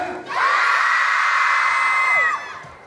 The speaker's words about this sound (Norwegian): Filmen hadde eksklusiv førpremiere i Oslo i går kveld, og den fremkalte både hyl og tårer hos jentene i salen.